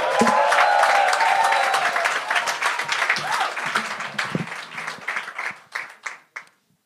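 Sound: audience applause and cheering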